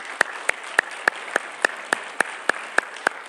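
A church audience claps together to thank the standing ministry team leaders and small group hosts, in a steady, even rhythm, about a dozen sharp claps at roughly three per second, with no voices over them.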